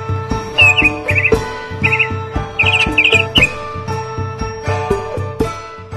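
Small birds chirp in quick, high-pitched bursts of twittering, repeated several times over a steady, softly pulsing rhythmic background with a low hum.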